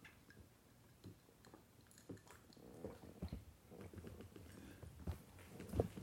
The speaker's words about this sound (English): I gotta take a, a drink of water real quick because it's hot.